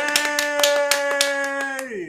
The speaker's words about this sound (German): Applaus. Yay.